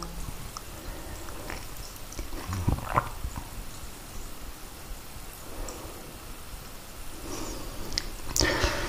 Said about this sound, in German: ist mein Kater bei mir.